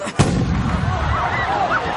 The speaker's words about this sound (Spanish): Podéis comenzar al sonido del cañón.